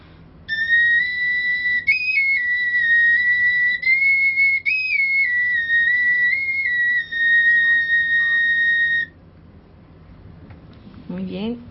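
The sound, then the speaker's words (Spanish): A small Mexica flute with four holes plays a long, steady high tone for about eight seconds, stepping between a few close pitches with slight wavers, heard alone before it stops. “Este tipo de flauta es, una flauta pequeña y era, pues a la...”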